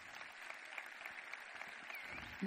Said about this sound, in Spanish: Aplausos!